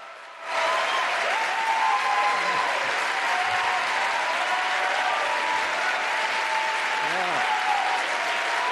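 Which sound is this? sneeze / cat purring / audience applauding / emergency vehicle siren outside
audience applauding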